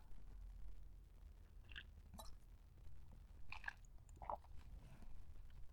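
Someone takes quiet sips of coffee: a few short, wet slurps and swallowing noises spaced over several seconds, with no talking.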